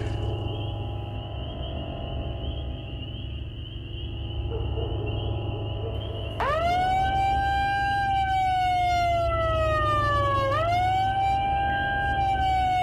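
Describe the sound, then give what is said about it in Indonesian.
A loud alarm blares from a horn loudspeaker while students are sleeping, its wailing tone suddenly kicking in over a steady background hum, sweeping down and rising again with harsh, piercing harmonics. “Suara alarm dari toa speaker menyala begitu keras.”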